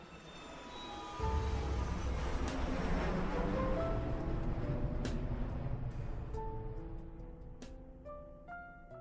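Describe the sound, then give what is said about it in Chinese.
An airplane takes off: a deep, broad roar surges in after a quiet second and holds steady, with whining engine tones threaded through, then eases slightly toward the end. No one speaks. “飞机很快的起飞，随着一声呼啸”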